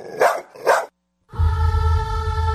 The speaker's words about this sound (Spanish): Ven, perrito, perrito. Ay, ese perro huele muy feo. Vamos a bañarlo.